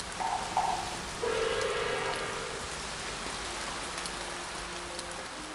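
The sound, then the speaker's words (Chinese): Steady rain falls outside the window in a continuous, hissing wash with scattered drops pattering throughout, while a few faint tonal sounds rise briefly in the opening seconds; no one speaks. “王兄，你听，这窗外可是在下雨， 是吧？”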